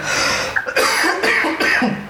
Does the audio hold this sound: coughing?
yes